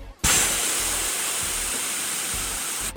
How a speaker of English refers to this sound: If you want to know what AM sounds like, it sounds like this.